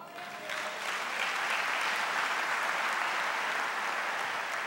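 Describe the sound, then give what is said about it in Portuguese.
An audience bursts into sustained applause, many hands clapping in a dense, steady wash that swells quickly and holds loud throughout, with no voices standing out. “Quem crê nele, levanta a sua mão e aplauda a ele.”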